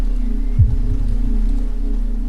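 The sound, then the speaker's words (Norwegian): A steady, dense wash of heavy rain, low and muffled, continuing evenly throughout, with one brief dull thump near the start. No voices. “Eh, og så Og det var veldig, veldig sterk regn.”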